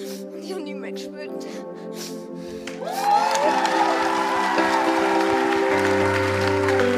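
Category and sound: crowd, crowd applause and cheering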